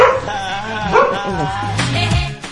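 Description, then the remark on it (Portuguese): Dogs bark, yelp and whine over one another in a loud, continuous tussle, with sharp high cries rising above a rough, growling mix. “a gente joga água quando o, o, o cachorro tá.”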